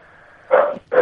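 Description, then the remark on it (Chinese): A dog barks twice in quick succession, loud, harsh and mid-pitched, over a faint steady hum, in the background of a caller on a phone line. No one speaks. “你说话， 喂 你那狗叫的比你动静都大，我们怎么对话？”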